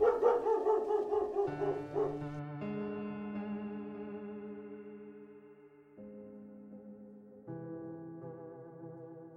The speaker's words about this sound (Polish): A i mam jeszcze nadzieję, że lubicie psy, bo dziś będzie ich wiele.